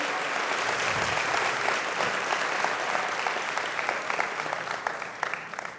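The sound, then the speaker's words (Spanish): A crowd claps steadily and fairly loudly for several seconds, a dense wash of hand claps that thins slightly toward the end, with no talking. “Vamos, si alguien va a aplaudir, creo que tiene que hacerlo mucho más fuerte.”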